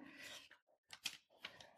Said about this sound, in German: Das ist das Reichsgerichtsurteil von 1913. Das sehen wir auch hier äh, vor uns. Ich kann hier mal gerade im Original blättern.